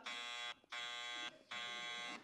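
Three loud, harsh buzzer blasts, like a game-show wrong-answer buzzer, each about half a second long with brief gaps between them, with no voices.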